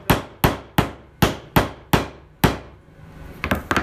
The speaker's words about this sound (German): Also mir macht Stämmen Spaß. Mhm. Die Geräusche sind auch sehr schön.